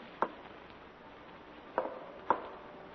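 Three uneven footsteps thud on a wooden floor in an attic, one step, a long pause, then two closer together, the limping gait of a lame man. Moderately loud against a quiet, faintly hissing background.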